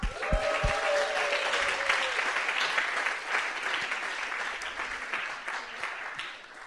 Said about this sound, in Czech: Eh, zeptám se, kdo jste na tomhle kempu úplně poprvé v životě? Wow, pojďme jim zatleskat.